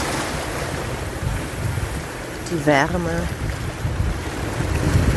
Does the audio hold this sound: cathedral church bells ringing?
no